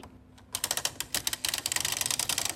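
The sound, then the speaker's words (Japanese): A hole punch machine runs with a rapid, dense clatter of sharp mechanical clicks, starting after a brief quiet moment and continuing steadily with no one talking; sound material sent in for a radio program jingle. “穴開け機の音”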